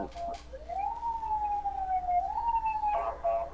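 An ambulance siren wails in a slow, steady rise and fall, fairly loud and continuous for a few seconds over a low background rumble, with no one talking.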